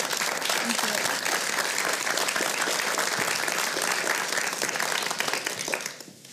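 Warm, sustained applause from an audience, a dense wash of many hands clapping at steady loudness for about six seconds before fading out at the end.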